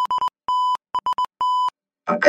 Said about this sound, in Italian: Eh, un codice cosa. morse. Cosa stavi dicendo in morse?